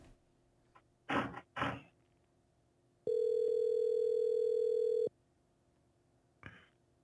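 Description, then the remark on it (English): A loud, steady telephone dial tone hums for about two seconds as a call is placed, preceded by a couple of brief clattering handling noises and followed later by a short click, with no talking. “Hold on, give him a call.”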